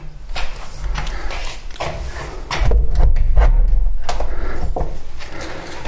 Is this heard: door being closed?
yes